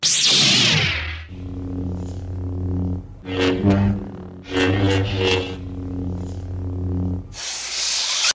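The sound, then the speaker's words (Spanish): A lightsaber sound effect, made by combining recordings of a 35 mm projector motor, a television tube and a microphone in front of a loudspeaker, ignites with a loud hissing burst, holds a steady buzzing electric hum broken by two sweeping swings, then snaps off with another bright, hissy burst. “Todo eso lo juntó y salió el clásico sonido de sable láser”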